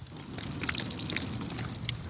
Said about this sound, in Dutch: Er loopt water door die bakken heen.